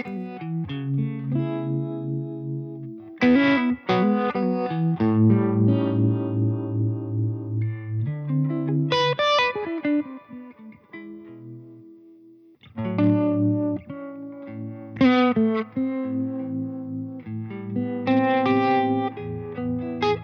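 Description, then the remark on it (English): Electric guitar plays chords and single notes through a Keeley Hydra harmonic tremolo pedal with the reverb unused, its sustained tones wavering and pulsing with a warm, wobbling modulation. The playing is clean and alone, with no voices. “So the Hydra trem and reverb, it's like Keeley's answer to the Flint, basically.”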